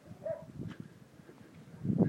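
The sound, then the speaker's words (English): A small dog yaps a few times in short, sharp bursts, with a louder flurry at the end, against faint outdoor background noise. “Not that yappy little thing you've just heard.”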